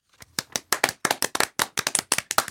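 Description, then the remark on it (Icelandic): Hands clapping in a quick, uneven run of sharp slaps, like a small group applauding briefly, with no talking over it. “Já, nú er öruglega klappa líka á kennarastofum um, já, um alland.”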